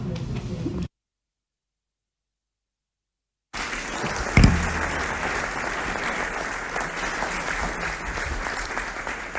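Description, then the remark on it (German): A crowd applauds in a dense, steady wash of clapping that cuts out abruptly into a few seconds of silence, then resumes just as loud with one sharp knock and continues evenly. “Ja, ihr Lieben, ich finde, ihr dürft noch ein bisschen weiter klatschen”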